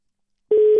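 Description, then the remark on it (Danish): After half a second of silence, a steady telephone line tone starts abruptly and holds, with a few faint clicks as the radio station Mix FM places a call to Kevin Magnussen to talk about the day's Grand Prix. No voices. “Så øh, jeg vil gøre det, at jeg ringer til Kevin nu, og så ser vi, om vi kan få fat på ham, og så får vi en snak om dagens Grand Prix i, i Arabien.”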